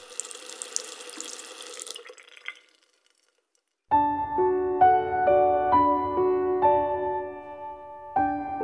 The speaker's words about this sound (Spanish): El sonido del chorro del agua llenando la bañera actúa como único soundtrack en el silencio reinante